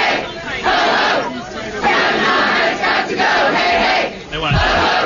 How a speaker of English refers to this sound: Hey, hey, ho, ho, Kavanaugh has got to go. That's minutes, I'd like to point out.